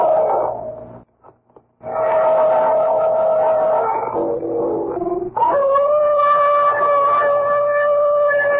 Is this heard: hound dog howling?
yes